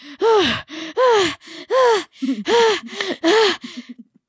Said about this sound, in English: She's she's breathing heavily. How do you guys run so fast?